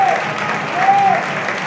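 Steady audience applause at a match for two substituted players, a dense wash of many hands clapping at an even, sustained level throughout, with a faint whistle-like tone rising briefly above it.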